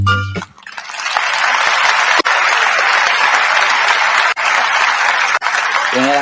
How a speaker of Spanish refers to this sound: ya tenemos al invitado de la tarde de hoy, para aquellos que, me estaban diciendo en el chat de que no iba a venir, está con nosotros, nada más y nada menos, con un fuerte aplauso también lo recibimos, el artillero cubano.